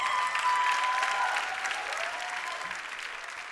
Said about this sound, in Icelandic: Gefum þeim góð klapp.